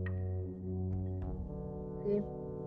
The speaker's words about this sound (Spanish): permíteme porque se, está escuchando un pequeño ruido que no sabemos de qué es. Por acá. estamos presenciando algo. ¿No, ¿No escuchas un silbido? ese, sonido he querido quitarlo pero no sé qué es lo que lo genera. No sé si es la Alexa.